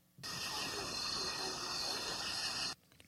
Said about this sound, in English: Okay, there's definitely some crickets going. There's a lot of background noise.